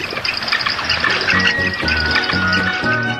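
A dense, steady chorus of frigatebird calls: overlapping rattling, clattering notes with thin whistles above, like a busy nesting colony, with no one speaking.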